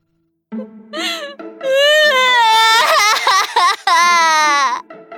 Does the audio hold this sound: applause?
no